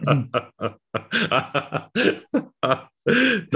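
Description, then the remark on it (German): A loud run of throat clearing and short coughs, about a dozen rough bursts in quick succession with brief gaps between, ending in a longer harsh hack. “Ich huste und räuspere ja nur, weil ich einen Werbepartner will, der was dagegen hat.”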